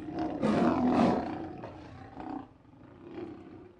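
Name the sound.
lion roaring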